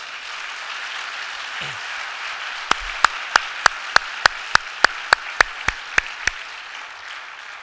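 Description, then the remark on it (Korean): Steady, hissing audience applause at a church conference encouraging five speakers who stand up, with a run of about a dozen sharp, evenly spaced claps standing out in the middle. No one speaks. “일단 조금 전에 멘션해드린 다섯 분의 강사님들 한번 자리에서 잠깐 일어나 주시면 여러분 우레와 같은 박수로 어, 격려해 주시기 바랍니다.”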